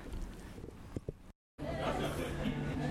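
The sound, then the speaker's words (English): Busy cafe chatter at brunch time on Manly Wharf, a steady babble of many overlapping voices with clinks and movement, broken by a brief silent gap before the crowded murmur resumes. “So we're now sitting in um, the Bavarian Cafe uh, on Manly Wharf.”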